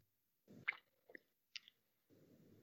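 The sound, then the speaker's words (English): Someone takes a quiet sip from a can of White Claw hard seltzer: wet slurping and swallowing mouth noises punctuated by a couple of sharp little clicks, with no talking. “He's taking a sip of his white claw.”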